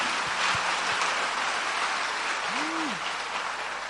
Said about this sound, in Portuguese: Então, pode aplaudir Jesus, que ele faz tudo isso.